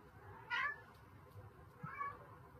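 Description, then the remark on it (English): A domestic cat meows loudly twice, a sharp, insistent cry followed about a second and a half later by a slightly softer second meow, with no talking over it. “Why is my cat screaming at me?”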